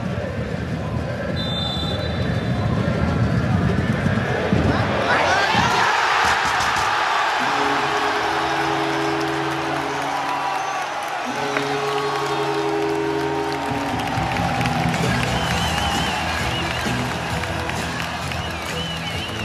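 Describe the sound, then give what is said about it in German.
A roaring Werder football stadium crowd cheers loudly and continuously, with a surge of noise partway through and steady chanting tones sustained over the din; the audio is taken from Werder's Instagram channel. “wir haben nämlich den Ton vom Instagram-Kanal bei ah, Werder geklaut.”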